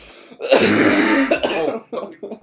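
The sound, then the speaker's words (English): A man coughs harshly: one long raspy burst of about a second, then a few shorter, throatier hacks trailing off. “I'm pretty He's sure. coughing up blood.”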